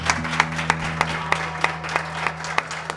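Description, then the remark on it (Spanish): Applause after a micro-story about the number pi is read aloud: sharp, evenly spaced claps at a brisk, steady beat, over a low continuous hum. No one speaks. “Un aplauso, un aplauso.”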